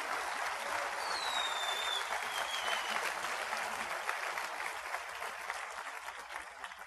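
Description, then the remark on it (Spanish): An audience applauds steadily for about seven seconds, a dense, even patter of many hands clapping with no voices on top, fading only slightly toward the end. “Sí, vamos a aplaudir por el ambiente, vamos a aplaudir por el ambiente.”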